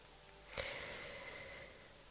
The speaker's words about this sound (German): Und jetzt atmen wir wieder gemeinsam lang und tief zusammen. Wenn es für dich stimmt, jetzt kannst du mal einatmen